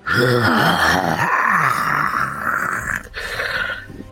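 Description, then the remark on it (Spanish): A voice imitates a creature's long, drawn-out final roar, loud, wavering and sinking like a disappointed groan before trailing off after about four seconds. “Ya, ya, es, ya es escuchando que se empieza a alejar un poco, solo para escuchar un rugido final que pareciera como si fuera un, grito de, de decepción.”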